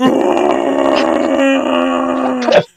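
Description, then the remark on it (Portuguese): A person imitates a real bear with a long, throaty growl, sustained and loud for nearly three seconds before cutting off abruptly, with no other sounds around it. “É, esse, é, é isso que o urso faria.”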